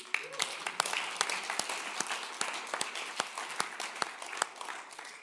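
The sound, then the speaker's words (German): An audience applauds five people standing at the front, a steady patter of many hands with sharp individual claps standing out, holding at an even, moderate level for several seconds with no voices over it. “Kann man mal einen Applaus geben?”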